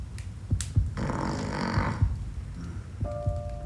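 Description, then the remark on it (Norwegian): A person snoring in slow, heavy breaths with a rough rattling inhale, over soft low thumps like a heartbeat, and a faint tone briefly near the end. “Hun hører hjerteslag og at noen snorker.”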